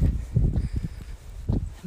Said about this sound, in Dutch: eigen voetstappen op het wegdek van asfalt.